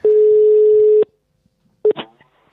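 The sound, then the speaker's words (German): A single steady telephone ringback tone lasts about a second, loud, while placing a call to the event manager of the town of Büdingen, then silence, followed by a short electronic blip and a brief rustling click on the line. “dann schnappen wir mal das Telefon und äh, klingeln mal durch.”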